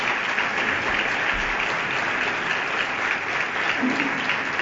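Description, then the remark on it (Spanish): Steady, dense applause from an audience interrupting a Holy Week proclamation speech (pregón) in Jaén, a continuous wash of clapping that holds at an even level throughout with no voices standing out. “Eh, la segunda interrupción del, público”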